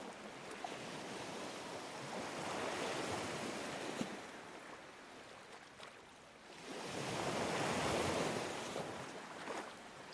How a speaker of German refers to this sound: Stell dir vor, dass du dich an einem Ort am Meer befindest und dem Klang der Wellen lauschst. Das Meeresrauschen beruhigt deinen Geist und deinen Körper.